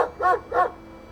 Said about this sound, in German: Und der Köter, der sieht auch nicht gerade freundlich aus.